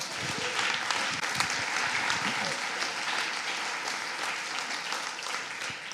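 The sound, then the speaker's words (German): A crowd applauds steadily for several seconds, a dense, even wash of clapping with scattered cheers and voices mixed in, holding at a constant level throughout. “Jetzt ist Jubel im Himmel, vielleicht auch hier.”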